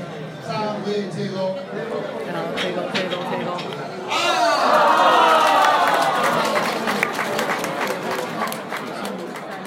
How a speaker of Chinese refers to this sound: 那如果有跋到杯哦，三个圣杯的时候，哇，大家就会一片欢呼声。